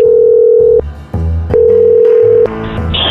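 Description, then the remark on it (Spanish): A telephone call being placed: a steady electronic tone sounds in two long bursts separated by short gaps filled with dialing beeps, then ends in a cluster of higher tones, loud with no voices. “Es todo lo que necesito, vamos a marcarle, ¿ok?”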